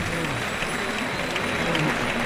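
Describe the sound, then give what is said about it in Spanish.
A bullring crowd breaks into sustained applause, an ovation for the bull Señorón as it is dragged from the ring, a dense steady wash of clapping with a few scattered voices mixed in, holding at an even loud level throughout. “Y se llevan a Señorón que recibe la ovación del público.”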